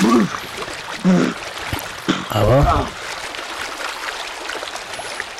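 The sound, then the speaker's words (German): Video game water splashing and running water sounds fill the background steadily, with a few sharp splashy bursts as the vine-swinging character drops into the water, while a man talks intermittently over them. “Klatsch.”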